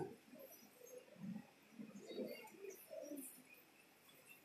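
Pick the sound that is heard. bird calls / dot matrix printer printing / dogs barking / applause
bird calls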